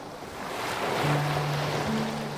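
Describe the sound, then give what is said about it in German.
Ocean waves wash onto a beach in a picturesque bay in a broad, hissing swell that builds and slowly eases, with a faint low hum beneath and no voices. “Der Strand befindet sich in einer malerischen Bucht.”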